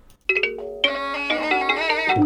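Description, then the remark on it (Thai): A slow, mournful Thai classical melody, the piece Thayoi Ot (Ot alternating with Thayoi), plays on traditional instruments, with sustained, wavering notes entering one after another and building into a full ensemble sound. No voices. “ก็จะบรรเลงเพลงประจำกันด้วยเพลงทยอยโอด ก็คือเพลงโอดสลับกับเพลงทยอย เพื่อที่จะประกอบกริยาคร่ำครวญหวนให้ของพระนามัสีเมื่อได้ทราบว่าพระเวสสันดรนนั้นได้บริจาคสองกุมารให้ชูชกไปแล้วนะครับลีลาการบรรเลงทำนองนั้นเป็นอย่างไรสำหรับทยอยโอด เรามาฟังกันครับ”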